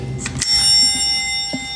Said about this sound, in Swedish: Jag älskar att ringa på dörrar.